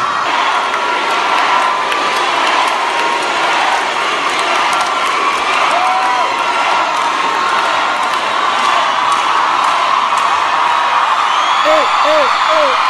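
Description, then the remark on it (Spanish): A lively concert audience of fans cheers and whoops continuously for a singer on stage, a dense wall of voices with rising shouts and high whistling calls standing out near the end. “Muy animada la gente, ¿no?”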